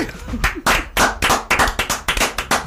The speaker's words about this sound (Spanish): Este aplauso para usted.